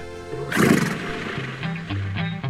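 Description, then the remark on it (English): A horse lets out a loud whinny that bursts in sharply, then trails off into fluttering, wavering neighs over a couple of seconds. “Come do that as well at the Stargazer Virtual Community Theater here under the stars with your horse.”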